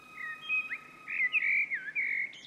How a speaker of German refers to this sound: Der Amselgesang hat für Menschen aus verschiedenen Gründen etwas Magisches – Erstens, weil er das Ende des Winters einleitet. Der Testosteronspiegel der Männchen ist im Frühjahr besonders hoch und steigert die Sangesfreude.